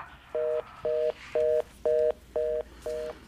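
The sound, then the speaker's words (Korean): A telephone's disconnect tone after a call hangs up: six short, evenly spaced electronic beeps repeating in a quick steady rhythm, clear and moderately loud with no voices. “그렇게 전화를 끊은 그녀는 저에게 한 말과는 다르게 급하게 움직이지 않았습니다.”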